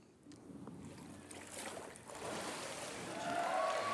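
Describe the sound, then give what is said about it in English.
Water sloshes and splashes in a continuous churning that builds louder toward the end, as a person rises out of the water after being baptized and shakes the water off. “I don't know if y'all noticed that, but as soon as I came out of the water, I guess my gut reaction was to shake the water off, and I got pastor wet.”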